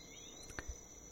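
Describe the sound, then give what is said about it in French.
A steady, high-pitched drone of crickets and tree frogs fills a quiet, warm night in the Antilles, continuous and fairly faint, broken briefly by a single soft click partway through. “Les grenouilles d'arbres, les grillons bercent les nuits chaudes des Antilles.”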